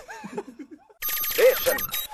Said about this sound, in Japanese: この着信は何